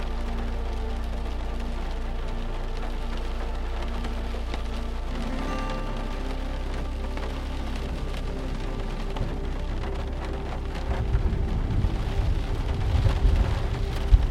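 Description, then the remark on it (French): Steady rain patters throughout while a low, distant thunder rumble from an arriving storm builds gradually, growing heavier and louder toward the end. “Un bruit sourd et lointain qui s'accentue au fil du temps.”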